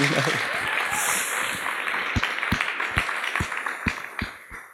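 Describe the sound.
An audience applauds in a dense, steady wash of clapping that gradually settles into loud, rhythmic unison claps about two per second, with crowd voices mixed underneath.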